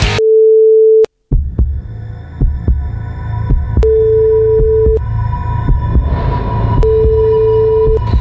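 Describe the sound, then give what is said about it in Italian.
An outgoing phone call's ringback tone while calling a friend: three long, steady beeps spaced a few seconds apart, with a low rhythmic thumping and faint clicks running underneath after the first ring. “Colleghiamoci con l'amico mio, per favore, dai.”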